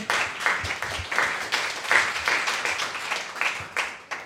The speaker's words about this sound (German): Kurzer Danke. Applaus.